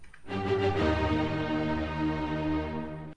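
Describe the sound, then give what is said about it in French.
An orchestra blasts the four-note opening of Beethoven's Fifth Symphony: three quick, loud notes followed by a long, sustained held note that rings out full, with no voices. “En fait, ce que vous venez d'entendre, c'est la cinquième symphonie de Beethoven.”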